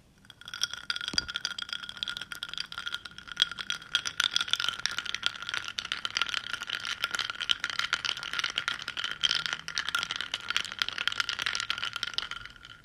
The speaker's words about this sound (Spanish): Y oigan, me olvidaré hacerles los 30 segundos de sonido de cafecito. Así que los próximos 30 segundos van a disfrutar el sonido de mi cafecito.